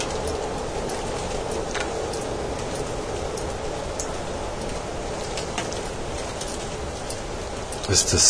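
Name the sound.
rain falling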